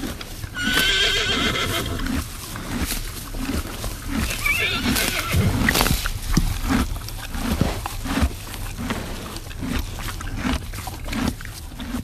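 A horse whinnies loudly near the start, followed by a steady, rhythmic clip-clop of hooves that continues throughout, with occasional snorts and further neighs over a busy outdoor background.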